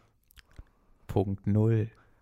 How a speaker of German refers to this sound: Und man hat deinen Schmatz noch richtig gut gehört. Ja, das ist gerade. richtig. Das ist, das ist Teil der ASMR-Erfahrung.